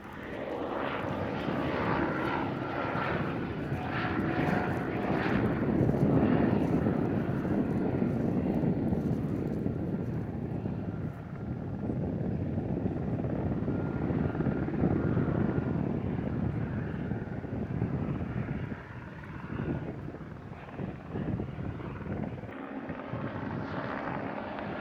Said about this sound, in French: Au milieu du champ, on prend le son de l'hélicoptère au milieu du champ.